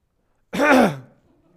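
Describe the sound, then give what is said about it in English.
A single loud, exaggerated throat-clearing, a short voiced 'ahem' made to draw attention, standing alone and fading into quiet. “Don't cough loudly.”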